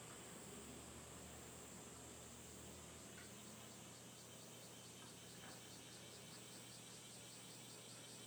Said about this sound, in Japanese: この虫の名前は何ですか、分かるかなはい、お母さんに聞いて皆さんに報告します、ね、この虫の名前は何です、ね、だからちょっと待っててくださいね